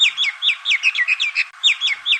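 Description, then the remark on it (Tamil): Indian mynas call in a rapid, continuous run of chirping, whistled notes, fairly loud, with short gurgling phrases repeating over and over and no voices present. “பிற பறவைகளின் கூடுகளுக்கு சென்று இந்திய மைனாக்கள் அங்கிருக்கும் முட்டைகளை தூர எறிவது அல்லது குஞ்சு பொறித்திருந்தால் அந்த குஞ்சுகளை கொல்வது என்று அராஜகத்தின் உச்சத்தில் நடந்து கொள்கின்றன இந்திய மைனாக்கள்”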